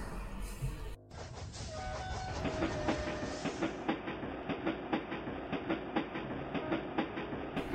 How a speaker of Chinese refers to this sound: 绿皮火车就等在那里，风扇在车厢顶部呼呼作响。